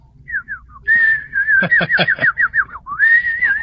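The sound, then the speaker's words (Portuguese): A person in a radio studio whistles a lively birdsong imitation for a scene, with short chirps, sustained warbling tones and rapid trills, fairly loud with no talking. “Da estúdio, só ele ouviu os passarinhos que eu subiava lá.”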